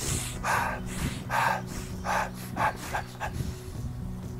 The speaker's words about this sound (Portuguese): Como se você fosse mexendo alavancas no sistema nervoso, você está meio preguiçoso, aí você inspira um pouco mais rápido, dá um pouco mais de tensão na respiração